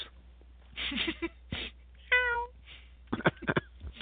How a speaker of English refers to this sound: the black and white cat.